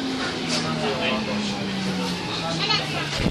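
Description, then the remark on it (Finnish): Inside a crowded metro carriage on the new western metro line in Helsinki, Finland: a steady low motor hum and rumbling ride noise, with a continuous background murmur of many passengers talking indistinctly. “Ja kuten kuuluu, niin ainakin Ruoholahteen asti kansaa riittää.”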